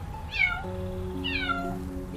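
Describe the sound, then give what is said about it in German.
A snow-white kitten, stuck up high and unable to get down, gives two thin, high-pitched, plaintive meows about a second apart, each sliding downward in pitch, over a steady low background hum. “Ein schneeweißes Kätzchen sitzt dort oben und miaut ganz kläglich.”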